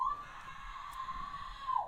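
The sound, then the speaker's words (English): A man, the speaker's brother, screams from another room, one long sustained high-pitched yell lasting about two seconds, muffled and fairly faint with no talking over it. “Um, yeah, not sure what he's screaming about.”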